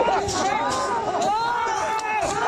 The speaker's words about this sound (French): Scène d'émeute dans la plus grande usine d'iPhone du monde où les ouvriers sont confinés. Ça se passe à Zhengzhou, c'est dans le centre de la Chine, à cause de la politique zéro Covid.